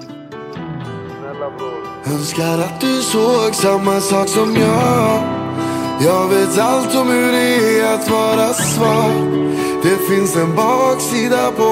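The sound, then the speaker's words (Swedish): A loud, full-band rap track where a melodic sung vocal carries the lines over a steady beat and sustained chords, playing continuously. “En låt på skivan heter ….”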